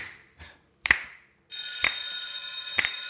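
A bell rings: a few separate metallic strikes that fade out, then a continuous, bright, shimmering ring that sustains to the end with periodic sharper hits. No one speaks.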